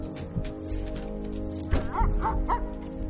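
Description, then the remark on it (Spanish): A dog climbing into the trunk of a car during a police vehicle search gives a quick run of three or four sharp barks, over a steady low rumble like an idling engine. “El perro sube al maletero.”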